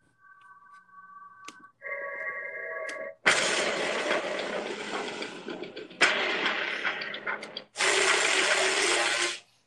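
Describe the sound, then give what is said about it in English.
Ominous, heavy synth film score: thin sustained tones open, then three loud, harsh, droning blasts of distorted synth build a dark, foreboding mood, with no voices. “Okay, so what I loved about it, it had such heavy synths the music was so foreboding and ominous, like you said, and really deep.”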